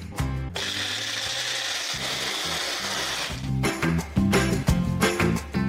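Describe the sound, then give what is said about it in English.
A mixer grinder whirs loudly and steadily, grinding a paste with a dense, rough hiss over a low motor drone. It runs without a break for several seconds, then its tone shifts and turns choppier. “Make a nice paste of this. Still a bit of grinding needs to be done.”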